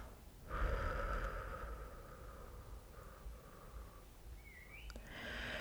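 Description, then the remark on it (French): A deep breath drawn in through the nose, followed by a slow, soft exhale through the mouth, quiet with no talking, during a guided breathing exercise. “Je vous invite maintenant à prendre une grande inspiration par le nez. et expirez lentement par la bouche.”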